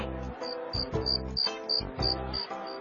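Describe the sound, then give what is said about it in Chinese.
A cricket chirps in a quick, steady series of high, thin pulses, around ten in a row, heard over a fuller backdrop of low, sustained musical tones. “又是一个星期六的晚上，马里奥忽然听到了一种奇怪的叫声，那声音啊，就好像是竖琴的琴弦被拨响了。马里奥好奇的走了过去，嘿！原来是一只蟋蟀”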